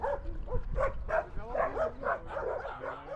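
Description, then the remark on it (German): Dozens of leashed dogs with four young dog walkers at a street intersection in Recoleta, Buenos Aires, bark and yip in short overlapping calls tumbling over one another in a steady, excited chorus with a few whiny tones mixed in. “Die Kreuzung ist der Treffpunkt von vier jungen Männern mit Dutzenden von Vierbeinern an der Leine.”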